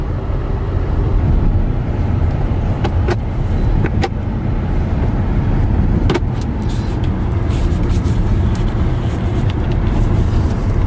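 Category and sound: vehicle, electric car accelerating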